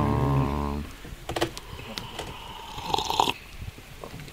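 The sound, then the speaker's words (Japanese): A campfire crackles with scattered, irregular pops and snaps, following a brief low droning hum at the start; no one speaks. “このまったりと言いますかね、うん、焚き火の音を聞きながらゆっくり自分で入れたコーヒーを飲む贅沢な時間ですね贅沢ですね”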